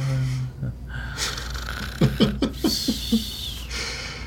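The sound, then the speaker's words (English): A person makes a fake snore: a quick run of about six rhythmic, throaty snorting pulses, fairly loud, with no other talking. “I had to cut myself off with a snore.”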